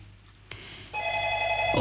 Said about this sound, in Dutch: Oeh, en daar gaat de telefoon.